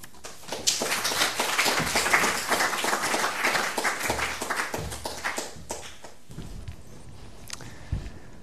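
A crowd applauds warmly, a dense, steady patter of many hands clapping that thins out and fades over the last couple of seconds, leaving a few scattered claps and quiet shuffling.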